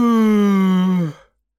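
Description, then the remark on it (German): A loud, deep voiced yawn from a fairy stretching her arms back, drawn out for about a second with a slowly falling pitch before it stops abruptly into silence. No one speaks. “Die Fee streckte ihre Arme nach hinten, dann gähnte sie laut und tief.”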